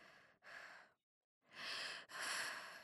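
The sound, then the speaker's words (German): Heavy, breathy panting: a quick in-out pair of breaths, a brief pause, then two longer, louder gusts of breath, as a woman who has been running through an estate slows down and tries to catch her breath. No talking. “Irgendwann wurde sie langsamer und versuchte wieder zu Atem zu kommen.”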